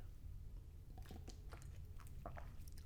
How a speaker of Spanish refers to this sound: estaba tomando agua